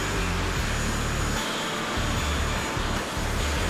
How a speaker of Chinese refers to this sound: 因此，两人把车子停在喷射引擎最具威力的地方。面对强大气流，车子还是顽强地趴在那里，但是一副老骨头几乎被强风吹散架，前后保险杠随风跑进飞机跑道。